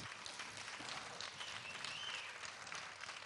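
A crowd applauds steadily for radio station Mayak and a band, a dense wash of many hands clapping at once, sustained and even throughout with no voices standing out.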